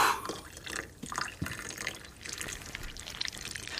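Vinegar pours onto baking powder while cookie dough is being made; the powder fizzes and foams with a steady, crackly hiss and scattered drips. It is moderately loud, running continuously for a few seconds with no voices.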